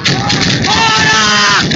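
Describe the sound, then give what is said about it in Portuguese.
A chaotic clash in Santa Catarina, Brazil, as protesters attack Federal Highway Police agents, throwing stones and objects: several voices shout and yell over a dense roar of noise, with sharp bursts of gunfire mixed into the commotion, loud throughout. “O som que você acabou de ouvir, de gritos e tiros, é de um dos vídeos publicados nas redes sociais nesta segunda-feira, que mostram o momento em que bolsonaristas iniciam ataques contra agentes da Polícia Rodoviária Federal, atirando objetos,”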